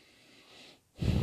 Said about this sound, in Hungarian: Halljuk egymás szuszogását. Anyám és én jellegzetesen szuszogunk valahol az órunk és a torkunk között.